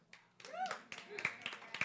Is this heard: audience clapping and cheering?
yes